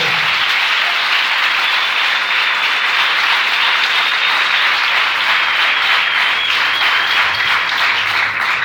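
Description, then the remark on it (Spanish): Loud, sustained crowd applause given to Christ at night fills the whole stretch, a dense steady wash of many hands clapping with no clear pauses or voices over it. “un aplauso a Cristo esta noche.”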